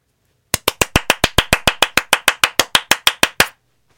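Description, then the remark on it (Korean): A radio host claps about twenty times in a steady, fairly quick rhythm to congratulate a listener, each clap sharp and bright, for roughly three seconds before stopping. No one speaks. “제가 다른 분들보다 박수 조금 더 쳐드렸어요.”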